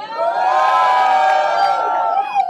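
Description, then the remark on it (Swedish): A live audience cheers loudly for a couple of seconds in response to the topic of sex and masturbation, a dense wash of shouting and high whoops that holds steady before fading slightly at the end. “Okej, okay, får vi höra publikens kärlek för sex och onani?”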